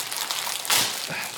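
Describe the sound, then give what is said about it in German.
Crinkling of a birthday present's packaging being torn open, a steady papery rustle with one sharper, louder rip partway through, heard alone without any talking. “Warte, das ist zwar eigentlich, ich versuche mal aufzureißen.”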